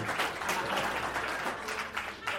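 Sustained audience applause, a dense steady wash of many hands clapping at an even level throughout, with no voices standing out.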